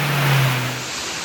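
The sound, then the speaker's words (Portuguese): Floodwater rushes down a street in Salvador, Bahia, Brazil, during heavy rain, a loud, steady roar of churning noise, with a low engine-like hum underneath for the first half-second. “E a galera, quem for subir a água de menina aí, ó, não venha não, porque o bicho tá pegando, vai. como tá descendo a água.”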